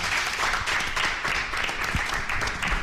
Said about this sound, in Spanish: yo creo que hay que despedirla, la con un grandísimo aplauso. Venga.